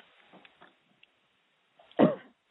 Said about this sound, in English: And the way you do it is you take a deep breath in, think about coughing down in your belly, and cough those things out, not from the throat. all the way down like that. Cough them all the way down to the belly.